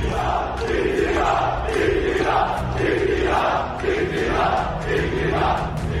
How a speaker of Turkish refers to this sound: CHP toplantıları iktidar iktidar sesleriyle yankılanıyordu.